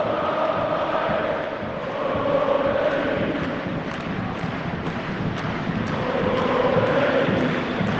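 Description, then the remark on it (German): A dense, steady roar of Union Berlin football fans in a stadium, with chanting voices swelling and easing in broad waves, continuous throughout. “sondern einfach nur, weil dieses Stadion und diese Fans von Union Berlin einfach so unfassbar toll gewesen sind. Diese Stimmung, und ihr hört es vielleicht noch”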